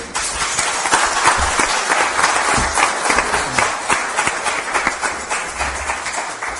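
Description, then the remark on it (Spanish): A crowd applauds steadily for several seconds, a dense wash of many hands clapping at once, loud and sustained without a break, with no voices standing out. “Aplauso para este hombre.”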